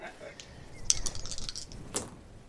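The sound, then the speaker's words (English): Dice being rolled again clatter and rattle against a hard surface, a quick run of sharp clicking taps with a brighter knock near the middle and another near the end. “I'll just try that again. I'm just gonna put you on timeout, dice.”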